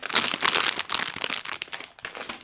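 Continuous crinkling of the plastic wrapper of a package of Harry Potter every-flavour beans being handled, with dense crackly bursts that rise and fall in intensity for a couple of seconds, no voices present.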